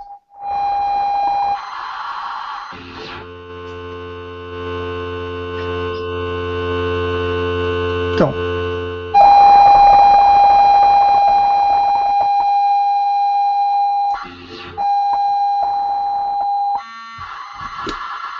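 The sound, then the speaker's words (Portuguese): ZX Spectrum cassette loading tones from a tape played on a cassette recorder after the LOAD "" command: steady, piercing pilot tones broken by harsh, buzzing bursts of data noise, loud and continuous for the whole stretch with no voices. “então o famoso load aspas aspas, load aspas aspas, que era aqui os comandos que se davam, um enter e depois Premia-se premia o play no, no, no, no gravador.”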